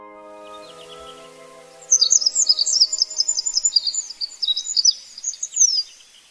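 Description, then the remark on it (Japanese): A high, rapid Olive-backed pipit song of thin trills and buzzy twittering phrases starts after a short quiet stretch and carries on for several seconds, clear over a faint low hum. The bird sings from a post in the wind around Mount Katta in the Zao range, on the Yamagata–Miyagi border, Japan. “山形県と宮城県にまたがる蔵王連峰勝田岳周辺を歩くと足元にはピンクの小さな花をつけた小草が風に揺れその風に乗って瓶髄のさえずりが聞こえてきました”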